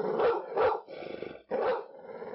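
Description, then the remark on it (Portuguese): Dogs bark in three loud, sharp bursts, with low rumbling growls filling the gaps between them; no one speaks. “Dos quatro mil indígenas que haviam saído conosco para aquela campanha, uma boa parte se deu de comida aos cachorros que nos acompanhavam.”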